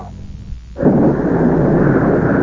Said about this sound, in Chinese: 这时听到外面声音很乱，大雨跟住下了四十多天。